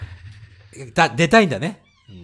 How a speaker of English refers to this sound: First of all, so you can hear my cat meowing. はい。Come here, caramel. Hey. Come here. Come here. Come here. Hey. かわいいな。She won't come to me. She's just looking at the door and meowing.